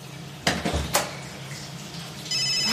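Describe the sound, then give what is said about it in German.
A few sharp clinks of dishes and cutlery, then a mobile phone starts ringing near the end with a bright, steady electronic tone. No one speaks. “da klingelt ein Handy kein Problem.”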